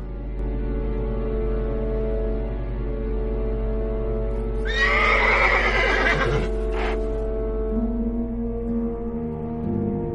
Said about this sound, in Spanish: A lo lejos, dos carruajes tirados por caballos negros.